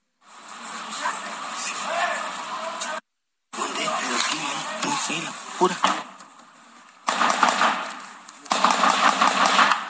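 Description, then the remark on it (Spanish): Sustained bursts of automatic gunfire crackle in rapid, rhythmic volleys during an armed clash over territory, gunmen shooting from the roofs of family homes in Banamichi, Sonora, with brief pauses between strings of shots and a rough, noisy background like a phone recording. “En el video se aprecia cómo estos sujetos se resguardan en los techos de las casas habitadas por las familias mientras realizan disparos.”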